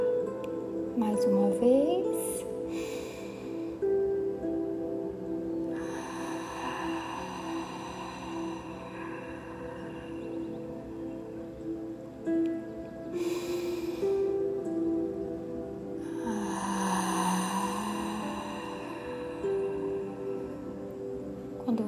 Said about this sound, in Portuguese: E uma vez mais, nós vamos tomar três respirações profundas. Você vai inspirar pelo nariz e expirar pela boca. Então vamos lá? Ah. solte todo o ar.